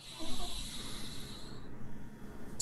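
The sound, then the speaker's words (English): One long, airy breath drawn in through the nose as part of a breathing exercise, with a soft hiss that tapers off after about a second and a half into near quiet. “Breathe in with the nose with me.”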